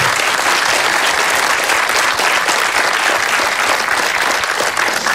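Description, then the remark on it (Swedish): Sustained audience applause, a dense, steady wash of many hands clapping at full volume throughout, with no pauses and no voices standing out. “En applåd.”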